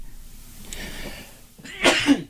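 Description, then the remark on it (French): A soft, breathy intake builds up before one sharp, loud sneeze bursts out, ending abruptly. No one speaks. “À tes souhaits, mon ami.”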